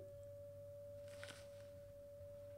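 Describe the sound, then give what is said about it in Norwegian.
A vacuum cleaner from 1975, running out in the hallway at Halne mountain lodge, gives off a steady, unbroken high-pitched whine over a low motor hum, with a brief rustling burst partway through. “Og den pipelyden dere hører, er eh, en støvsuger fra 1975 som holder på ute i gangen på Halne fjellstugu.”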